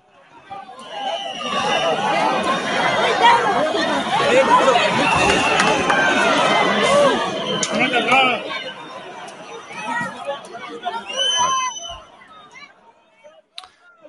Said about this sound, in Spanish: Bueno, el grito, no sé si se me escucha. El grito es fuera las fuerzas de ocupación, ¿eh?